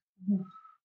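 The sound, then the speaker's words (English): A single short snort as someone sharply draws in breath through the nose while trying to breathe in and having trouble getting a breath, a quick nasal burst with a brief squeaky tail, heard on its own without talking. “I, I, just tried to breathe and I snorted.”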